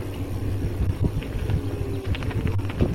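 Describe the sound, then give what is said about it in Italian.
Donkeys' hooves clop irregularly on a hard road in Trentino, Italy, a scattered series of hollow knocks over a steady low engine rumble and light wind noise. “Attenzione, ci sono degli asini in mezzo alla strada, giuro.”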